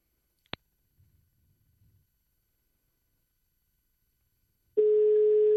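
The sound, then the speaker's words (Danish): A sharp click, a few seconds of near-silence with faint low rumbling, then a loud, steady mid-pitched telephone ringing tone of an outgoing call being placed starts and holds through the end. “Jeg prøver at ringe.”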